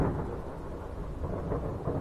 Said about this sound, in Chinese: 他俩在林中小屋里谈话，屋外雷雨交加。